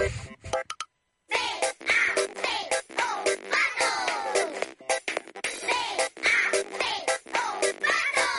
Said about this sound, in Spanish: El que está cantando es el patito que de goma que tenemos aquí en el estudio, nuestra mascotita.